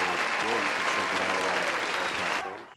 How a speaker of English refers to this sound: Hey, round of mm-hmm. applause for that. Round of, round of fucking applause, man.